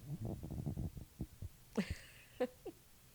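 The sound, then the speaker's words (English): A cat scratches itself against a microphone, making muffled, rhythmic thumps and scrapes followed by a few sharper, brushy bursts, with no talking. “I can hear the cat scratching itself on the on the microphone.”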